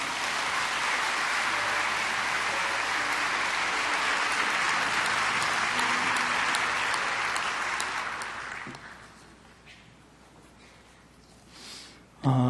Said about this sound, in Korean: 우리 박수로 우리 환영하며 말씀을 듣겠습니다.